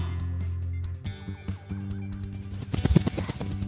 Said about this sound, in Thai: ยังไม่ทันที่พวกเราจะได้พูดอะไร ไก่ต้งก็บินขึ้นไปเกาะบนกิ่งต้นมะม่วง แล้วก็พยายามที่จะปีนขึ้นไป เกิดมา ฉันก็เพิ่งเคยเห็นไก่ปีนต้นไม้นี่แหละ